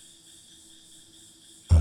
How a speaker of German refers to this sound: Es ist ein tiefer, vertrauter Wald in einer Sommernacht. Du hörst die Grillen zirpen